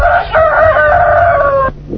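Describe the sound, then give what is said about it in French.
A rooster crows loudly, one long drawn-out cock-a-doodle-doo that rises, holds for over a second, then cuts off abruptly, with a low hum underneath. “Bon, je crois que nous avons un jeune coq, un jeune poète parmi nous, présente-toi.”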